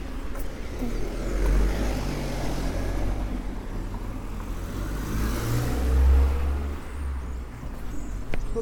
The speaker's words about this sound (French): Parce que regarde, les voitures, elles arrivent vite, c'est dangereux. Allez, là, on peut traverser.